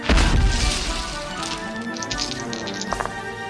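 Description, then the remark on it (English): A loud thud of a body, thrown backward through the air, crashing down onto the floor beside a greenhouse in a chamber, followed by a few seconds of scattered clattering and splintering debris settling, with no voices. “You come crashing down just shy of the greenhouse on the northern side of the chamber.”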